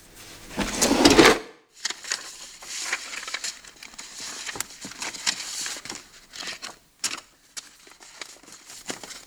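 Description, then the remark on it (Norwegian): A dresser drawer slides open with a broad scrape, followed by rummaging while searching for evidence: rustling, crinkling papers and small knocks as items are shuffled around inside, no voices. “Vi må lete etter bevis. Sjekke skuffene på kommoden.”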